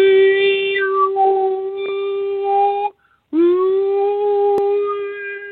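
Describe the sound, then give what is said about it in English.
A single voice holds a loud, steady sung "oo" (U vowel) tone with ringing overtones that shift in brightness, pauses briefly for breath, then resumes the same sustained note, sung to scan a person's solar plexus. “I would try to scan someone's solar plexus now with a real note and then you will hear when the right note is there.”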